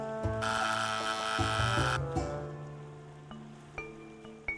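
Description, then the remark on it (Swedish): A doorbell rung by a new neighbour, in the US state of Georgia, rings with a loud, buzzy clang for about a second and a half, then its tones fade and ring on, with a couple of soft knocks near the end. “Fram tills en dag en ny granne ringer på”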